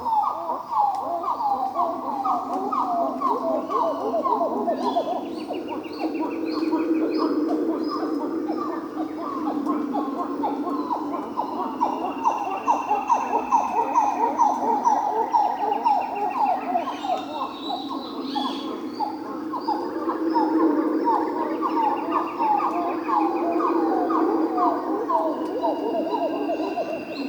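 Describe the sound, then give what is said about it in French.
A group of small titi monkeys, locally called Zogi Zogi, calling together in the forest in the morning in a dense, continuous chorus of rapid, pulsing hoots and warbles, with occasional higher whistled notes rising above, steady and loud throughout. “C'est la signature sonore de cette forêt. Son nom local est Zogi Zogi, ou brun, Un petit singe calicèbre, typique du Nouveau Monde.”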